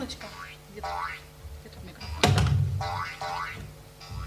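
A springy, boing-like electronic alert tone of quick pitch sweeps from a phone navigation app, played when the rotated phone loses its direction. It repeats several times at moderate volume and is interrupted midway by a sharp thump with a low rumble.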